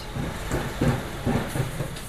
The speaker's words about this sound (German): Die Müllabfuhr kommt.